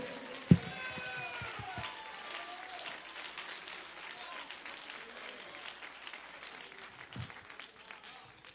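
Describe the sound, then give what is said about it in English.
A Pentecostal church audience claps their hands in sustained, dense applause during a service, with scattered voices and cheers mixed in throughout, fairly steady in loudness from start to finish. “Come on, congregation, clap your hands.”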